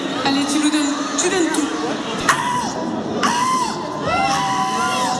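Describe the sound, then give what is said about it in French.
A crowd at a seagull contest in Capelle cheers and shouts enthusiastically to encourage a contestant, with overlapping whoops and high calls rising above a steady roar of voices, loud throughout. “Allez, on l'encourage.”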